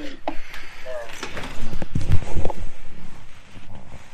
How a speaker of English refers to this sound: Sorry, yeah, shut, shut my uh, garage uh, door.